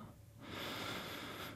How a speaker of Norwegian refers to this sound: Pust inn med nesa